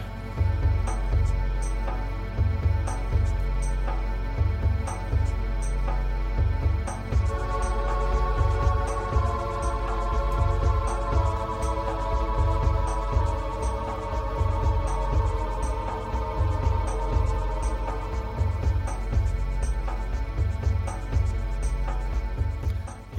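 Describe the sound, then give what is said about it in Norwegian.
Tense, driving video game castle-level music with a pounding low bass pulse and steady percussion, a sustained melodic line rising in the middle; loud and continuous with no talking. “hyggelige toner fra Copa Castle der, altså.”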